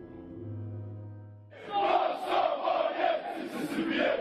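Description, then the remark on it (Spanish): A steady, low horn-like drone holds for a moment, then a loud mass of Dinamo Zagreb ultras in a football stadium bursts into chanting against Yugoslavia, a dense roar of voices rising and falling in waves. “Cánticos Chenny por un lado contra Cánticos Ustallas por el otro.”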